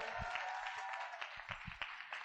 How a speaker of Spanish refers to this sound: Un fuerte aplauso.